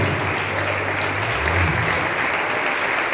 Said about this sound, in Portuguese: Então levanta suas mãos bem alto e começa a aplaudir o nome do Senhor agora. Exalte o nome do Senhor. Vai dar glória a Deus, vai exaltando, vai aplaudindo, meu irmão.